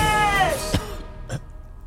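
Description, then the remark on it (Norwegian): Two short, sharp coughs from a person, the first around the middle and a second softer one shortly after, over a fading tonal background. “Faen, du hoster, Ja.”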